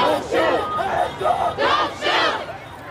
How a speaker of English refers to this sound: These are the sounds of protest.